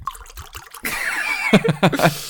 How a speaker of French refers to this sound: Il fait tellement de bruit ce vin on dirait un faux bruitage, tu sais.